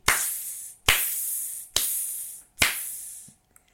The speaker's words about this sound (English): Interesting. As the snare vibrates on the drum.